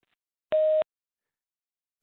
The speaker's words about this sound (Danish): At the tone, please record your message.